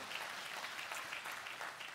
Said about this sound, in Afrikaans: Die kerkfamilie kan ek vra met 'n hande klap. Kom ons verwelkom ook net ons aanlyn gehoor.